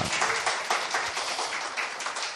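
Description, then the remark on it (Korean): The audience at a church testimony gathering claps as the hosts make their entrance to music, a dense, steady patter of many overlapping claps that continues evenly throughout at moderate loudness, with no one talking. “안 치시던 박수까지 치시니까 굉장히 뻘쭘했는데”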